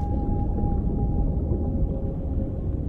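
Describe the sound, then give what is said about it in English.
A long, steady call from a pod of a dozen whales holds one pitch and drifts slightly lower, sounding over a deep, continuous underwater rumble. No one speaks. “It was a pod of a dozen whales.”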